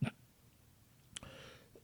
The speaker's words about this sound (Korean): 어 죄송합니다. 최근에 날이 건조해서 그런지 자꾸 기침이 나더라고요. 물 한 모금만 마시고 할게요.